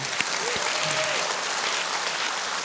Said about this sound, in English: Come on, if you're going to clap, clap. Come on.